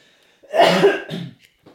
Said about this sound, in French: Je tousse, euh, je, je, suis encore en état grippal, désolé, je tousse une bonne fois.